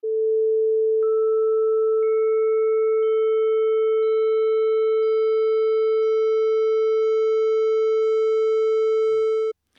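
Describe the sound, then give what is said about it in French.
A steady, loud pure electronic tone, joined roughly every second by another higher sine tone until several pure elementary frequencies sound together, as in an example from a video by Professor Peter Selinger, a mathematician in Canada, showing a complex sound as a sum of frequencies, then cutting off abruptly. “On peut par exemple décomposer ce son en la somme de ces différentes fréquences élémentaires.”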